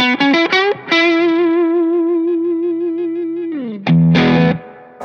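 An electric guitar through an amp with reverb plays a bluesy lick: a few quick plucked notes, a long sustained vibrato note that slides down, then a loud strummed chord ringing out.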